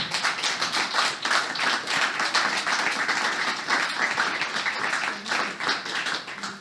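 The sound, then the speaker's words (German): Sustained applause from an audience welcoming a journalist guest, a dense wash of many hands clapping steadily at even loudness for several seconds, with no talking over it. “Noch ein Applaus und ein herzliches Willkommen bitte für Herrn Thumann.”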